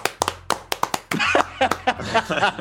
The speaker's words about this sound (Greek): Όλοι νομίζω οφείλουμε, τουλάχιστον έτσι για το γαμό της υπόθεσης, να ναι. ρίξουμε ένα χειροκρότημα